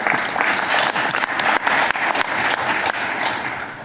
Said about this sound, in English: I won't ask you to hold your applause at the end because we're all saying good things.